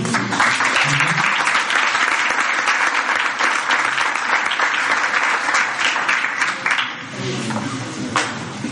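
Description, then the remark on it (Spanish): Loud, sustained applause from an audience welcoming Sara Vallejo, a dense crackle of many hands clapping at once that holds steady for several seconds before thinning slightly near the end. “Entonces, bueno, les llegamos a Sara Vallejo con un fuerte aplauso.”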